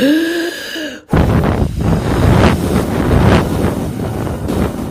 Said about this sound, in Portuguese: Furioso, o lobo deu um sopro forte em direção à casa.